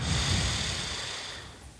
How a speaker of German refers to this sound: Also setzt euch aufrecht hin, sucht euch ein, äh, ein, ein angenehmes Plätzchen, Rücken gerade und atmet die ersten drei Male richtig tief durch, also tief ein, tief aus, wirklich tief